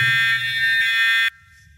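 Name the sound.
buzzer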